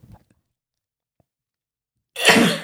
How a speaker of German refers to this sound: Oh, sie muss niesen.